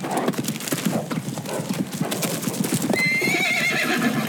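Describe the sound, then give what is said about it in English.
A posse's horses gallop up to old Thingamus Pass to intercept a train, with a rapid, steady clip-clop of hooves, loud and continuous, and partway through a horse lets out a high, wavering whinny over the pounding rhythm. “Oh, the posse rode up to old Thingamus Pass to intercept the train.”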